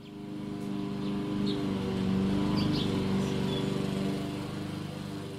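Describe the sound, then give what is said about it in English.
A lawn mower engine drones steadily, its low buzzing hum holding constant for several seconds with slight rises in loudness, and no voices over it. “We begin with a look at some of the recent news in science and a sound that's getting all too common now that the lawn grass is getting tall again.”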